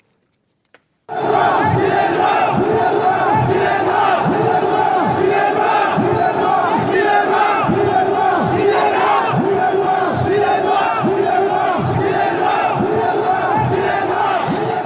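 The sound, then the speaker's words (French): After a second of silence, several hundred protesters, a collective of undocumented workers called the Gilets Noirs, chant loudly and steadily inside the Panthéon, many voices shouting a repeated rhythmic slogan with regular beats throughout. “il y a deux jours, plusieurs centaines de manifestants se sont introduits au Panthéon.”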